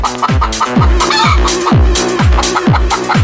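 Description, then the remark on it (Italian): Hen clucks ride over a pounding house-music beat, with steady thumping kicks about twice a second and bright, chopped clucking sounds repeating in rhythm, loud throughout. “Facciamo il saluto anche alla gallina sculacciata che poi si incacchia.”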